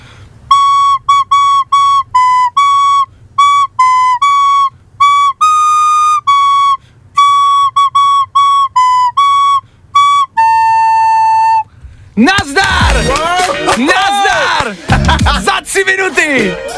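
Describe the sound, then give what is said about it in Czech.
A simple tune played haltingly on a whistle by someone who learned it within a few minutes, bright reedy notes with uneven pauses between phrases and a long held final note, followed by loud excited voices. “Znělka! My heart will go on! Je to tam!”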